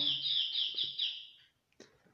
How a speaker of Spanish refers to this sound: Escuchó un pajarito. Es el reloj Es el reloj. ¿Qué hora es? Ya marca. Ya la una. Sí, la una. la ah, una. Está adelantado.